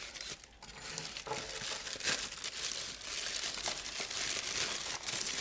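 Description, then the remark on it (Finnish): A somewhat bigger cardboard box is opened at a city museum amid continuous paper crinkling and rustling, with scattered sharper crackles and tearing-like bursts over about five seconds at a steady, moderate level. No voices are heard. “Katsotaan, tämä on tosissaan vähän isompi laatikko.”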